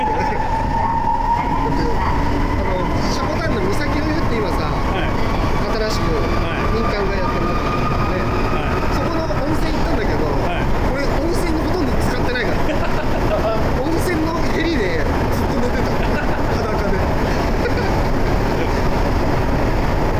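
Steady, loud rumble and rattle of a Sapporo Municipal Subway Namboku Line car in motion in Sapporo, Hokkaido, with a continuous low roar, a faint tonal whine and occasional clicks running throughout the whole stretch.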